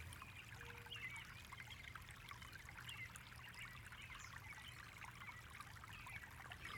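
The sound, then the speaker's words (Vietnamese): Water flows steadily and continuously, a soft trickling, babbling stream with a constant rushing texture and no voices, staying even in level throughout. “Tiếng nước chảy.”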